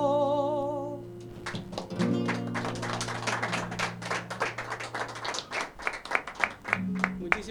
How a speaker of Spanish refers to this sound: Muchas gracias a, bueno, ustedes por sus aplausos, por su reconocimiento, a ustedes por, por tenerme en cuenta, por la invitación.